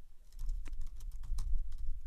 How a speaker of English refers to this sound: So I'm, I am typing back a response here to someone um, on texting.